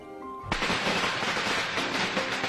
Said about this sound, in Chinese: 这天夜里，爆竹噼噼啪啪的响个不停。